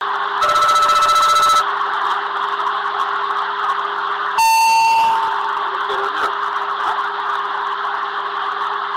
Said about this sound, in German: nachbearbeitete, verbesserte Fassung des Mitschnitts vom Cockpit Voice Recorder gefunden, eben von jedem Teil, auf dem der Feueralarm und die Unterhaltung zu hören sind. Und davon möchten wir euch jetzt gern mal einen Eindruck geben, akustischer Art.